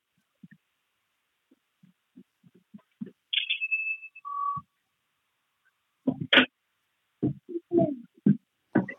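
A brief electronic phone tone sounds: a high chirp followed by a lower steady beep, clear, after some soft low thumps. Bursts of muffled activity follow.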